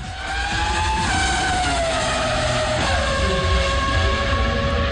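A powerful V8 race car engine roars loudly and continuously, its pitch sweeping down and up as it shifts and accelerates, with a faint tire squeal in the mix.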